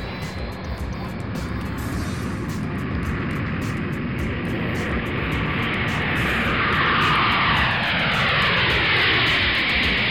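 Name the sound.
airplane engine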